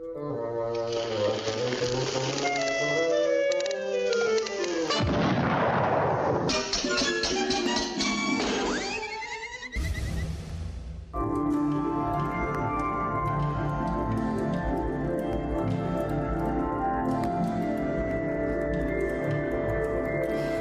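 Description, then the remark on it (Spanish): A NASA sonification of images captured by the Webb telescope, the largest and most powerful telescope in the world: synthetic electronic tones glide and shimmer through a swelling noisy texture, then settle into a steady, layered drone of sustained harmonic pitches, with no speech. “Bueno, esto que estamos escuchando es parte de un proyecto de la NASA en el que se toman imágenes capturadas por el maravilloso telescopio Webb, que es el telescopio eh, Webb, el más eh, poderoso, el más grande del mundo”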